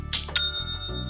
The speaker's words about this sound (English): You know what that sound means. That's the sound of another sale going through on Shopify, the all in one e commerce platform that will help you start, run, and grow your business.